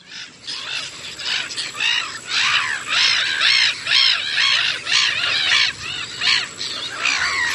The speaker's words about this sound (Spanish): A la vista tengo una, dos, tres, cuatro, cinco gaviotas reidoras. Bueno, no tendría nada extraordinario ver gaviotas si estuviese en la costa, si estuviese, no sé, en Valencia, si estuviera en Castellón, Málaga, pero es que estoy en la casa de campo